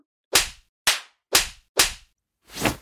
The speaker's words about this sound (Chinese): 被我揪着耳朵扇耳光，还不肯吗？我看你的耳朵是不够疼，狠狠的揪你的耳朵， 扇烂你的小脸！